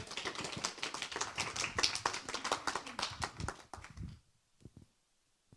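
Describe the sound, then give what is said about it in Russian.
Audience applause: many hands clapping in a dense, steady burst for about four seconds, then thinning to a few scattered claps before fading out. “Спасибо большое, аплодисменты.”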